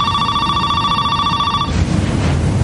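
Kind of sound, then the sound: signal or alarm, telephone ringing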